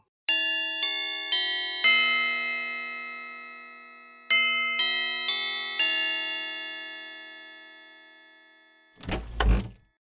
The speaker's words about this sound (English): And he walks up to the doorbell and just rings it.